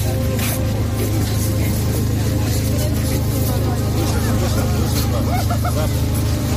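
Electric generators powering the Christmas tree lights drone steadily in a city street in Kyiv, Ukraine, during wartime power cuts, a constant low engine hum that never lets up, with an indistinct crowd murmuring beneath it.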